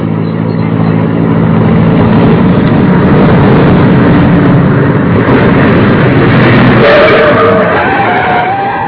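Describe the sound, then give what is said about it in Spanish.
A taxi's car engine rumbles loudly, holding a steady roar before its tone shifts near the end as the taxi slows and pulls to a stop. “Aquí viene un libre. Déjenme llamarlo.”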